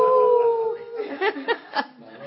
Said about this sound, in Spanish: Oí como el aullido, un aullido que...